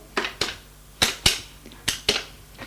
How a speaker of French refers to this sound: Elle soupire et elle sort de la chambre pour aller au salon téléphone et fait un numéro.